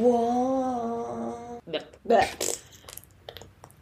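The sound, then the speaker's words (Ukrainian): A held vocal tone gives way to a lighter being flicked several times: a run of short, scratchy clicks and rasps, moderately loud, irregularly spaced over a couple of seconds. “Зажигалочки! Це більше тупих звуків в цьому подкасті.”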